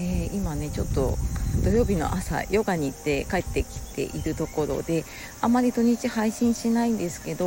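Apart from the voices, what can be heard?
cicadas chirping outdoors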